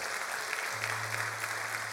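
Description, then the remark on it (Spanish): Steady, dense applause from a crowd giving a round of applause to the Lord, a continuous wash of many hands clapping with faint rhythmic swells, joined partway through by a low sustained hum underneath. “Alguien le da un aplauso al Señor por eso.”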